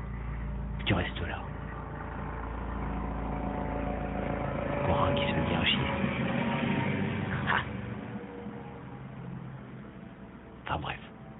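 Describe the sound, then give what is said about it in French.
A helicopter drones overhead, a steady low rumble that swells louder toward the middle and then fades slightly, with a few sharp clicks and some voices underneath. “Car il y a carrément l'hélico qui passe, tu vois.”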